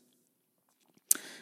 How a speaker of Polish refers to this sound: zobaczymy, czy pieski mi pozwolą dokończyć. Te tuptania, co słyszycie w tle, i jakieś sapania i inne, to są właśnie moje psy.